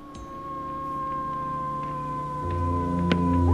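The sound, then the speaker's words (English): A long, eerie howling drones on without a break, its sustained tones holding steady while a low rumble swells near the end. There are no voices. “the howling starts up again, and this time Richard is around to hear it”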